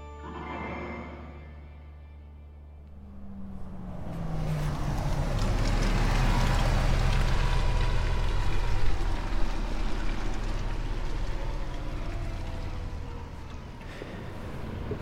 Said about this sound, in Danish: der kom den sidste bus, må det simpelthen være, til Lohals. Den var tom. Den vendte bare lige hernede på havnen og kørte tilbage igen. Jeg er i Lohals på det øh, nordlige Langeland, som er en lille bitte by.